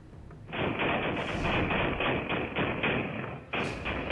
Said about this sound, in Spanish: Los sujetos avanzan junto con el coche y finalmente cuatro de ellos comienzan a disparar en repetidas ocasiones.